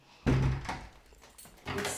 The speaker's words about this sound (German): Jetzt schließe ich einfach mal die Tür ab, das sieht niemand vor, aber just in case.